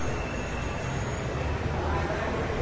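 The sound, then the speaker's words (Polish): Busy street ambience recorded in Rome: a dense, steady wash of traffic rumble and city noise, fairly loud and continuous throughout, with no distinct individual events standing out. “Ulicy nagranej e, w Rzymie.”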